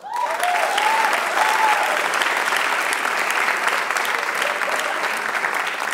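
An audience at a comedian's stand-up show claps on request to demonstrate how they applaud, a dense, even wash of many hands for several seconds with a few brief whoops or vocal cries near the start, holding at a fairly loud level throughout.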